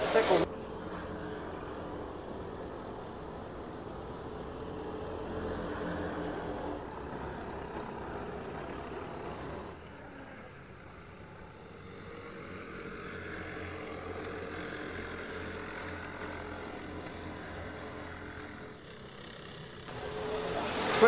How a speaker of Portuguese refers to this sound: E você vai acompanhando junto com a gente aqui as transmissões das 500 milhas de kart da Granja Viana. Aí o Abuissa passando ali, o kart da equipe do Abuissa e atrás dele está posicionada ali a galera da Sabiá.